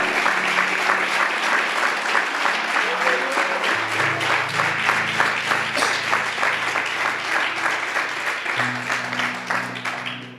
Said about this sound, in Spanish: Si aplaude, aplaudo para el Señor, porque Él te eligió, te llamó.